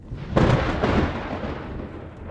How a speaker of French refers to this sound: Quant au tonnerre, il s'agit tout simplement de la manifestation audible de cette décharge électrique.